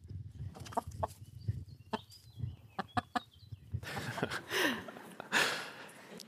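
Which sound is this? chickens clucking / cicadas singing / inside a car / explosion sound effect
chickens clucking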